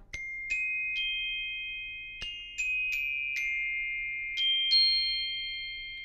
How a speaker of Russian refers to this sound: Это не такое звучание в оркестре у колокольчиков.